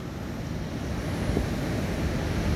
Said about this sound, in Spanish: Con la marea más alta, todo empieza a ser como más frágil. El mar siempre impone. Y el mar recuerda y nos recuerda quién manda.